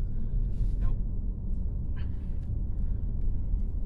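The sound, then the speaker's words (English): A car rumbles steadily, its deep, continuous engine drone holding an even loudness throughout, with a few faint, brief higher-pitched squeaks over the top. “I think it's I think it's a car.”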